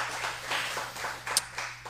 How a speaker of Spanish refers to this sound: Alguien dele un fuerte aplauso al Señor por eso.